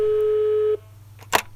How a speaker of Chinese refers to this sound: 亮子拿起了桌上的电话，一通按键之后，电话拨通了，是免提电话。